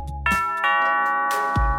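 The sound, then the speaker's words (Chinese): A doorbell at a detective agency chimes with two ringing tones, the second one sustained and slowly fading, loud against an otherwise quiet background with a dull low thump at the start and end. “这时候，侦探社的门铃响起来喽。”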